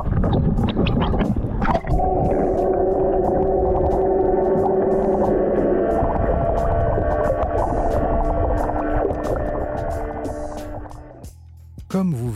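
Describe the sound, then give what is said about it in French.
Loud, steady underwater roar from two offshore drilling rigs working 15 to 20 metres deep, heard through a GoPro lowered into the water with the boat's engines off: a dense grinding drone with droning mechanical tones and faint clicks, continuing for about eleven seconds before cutting off abruptly. “Il y a les deux foreuses dans l'eau, elles sont actuellement entre 15 et 20 mètres de profondeur.”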